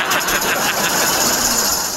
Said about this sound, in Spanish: Y ya me estoy usando la licuadora para hacerme un licuado, güey. Y ya me di cuenta que vas a ver mi licuado de plátano, vas a ver a chile guajillo porque no la lavé bien cuando hice